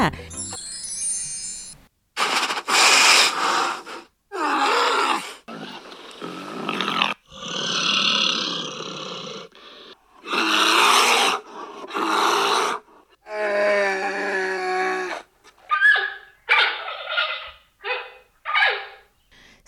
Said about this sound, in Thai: เสียงที่ได้ยินทั้งหมดนั่นก็คือเสียงของหมีค่ะ เดี๋ยวเราก็จะมาเฉลยกันนะคะว่า เสียงที่ได้ยินนั้นคือหมีอะไรบ้าง